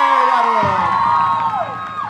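A loud audience cheers and whoops, with high sliding shouts rising over a dense wash of crowd noise and applause that fills the whole two seconds.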